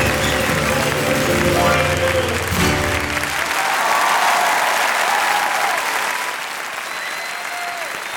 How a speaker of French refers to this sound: Eh ben, on vous quitte sous ces applaudissements.